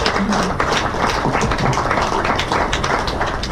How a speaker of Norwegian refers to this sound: oi, oi, oi. Vi klapper for det, da.